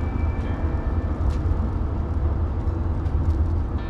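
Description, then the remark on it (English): A car engine purrs steadily as the car speeds up to 55 on Huffine, a continuous low rumble with faint road noise and no voices. “Hear that engine purring.”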